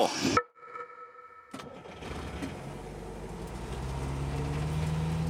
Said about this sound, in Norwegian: Det er november 2017, og vi sitter i en liten buss på vei fra Stockholm til Kjeseter.